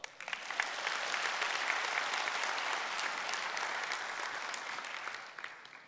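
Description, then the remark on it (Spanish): An audience applauds steadily for about five seconds, a dense crackle of many hands clapping at a fairly even loudness before thinning and fading out at the end. “Date un aplauso.”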